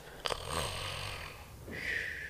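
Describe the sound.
A person mimics snoring as if having fallen asleep: a couple of rasping, snorting inhales followed by a long whistling, wheezy exhale. The exaggerated imitation fills the short moment, with no talking.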